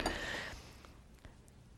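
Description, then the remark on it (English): A drinking glass clinks sharply as it is lifted, leaving a short bright ring, then a couple of faint taps as it is handled. Quiet, with no one speaking. “I can decide to pick up this glass.”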